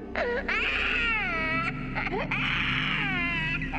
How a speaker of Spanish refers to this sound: Era el llanto de un niño. Tuve que tapar mis oídos para no escuchar nada porque estaba aterrada.